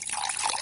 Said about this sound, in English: You hear that? That's the sound of healthy, safe water from the tap. And that safe water is available nearly everywhere in America thanks in large part to the Safe Drinking Water Act, which turns 40 this year.